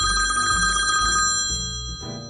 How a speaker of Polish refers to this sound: A czy dzwoni ktoś do nas, Ewka? No wydaje? właśnie, kurczę, dobra, odbieramy.